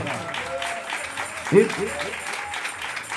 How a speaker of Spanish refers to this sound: Dele palmas a Dios en esta hora.